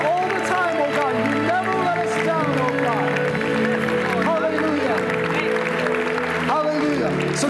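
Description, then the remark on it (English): An audience claps for the Lord steadily for several seconds, a dense wash of applause mixed with voices and sustained musical tones that stays at an even, loud level throughout. “Come on, give a clap to the Lord.”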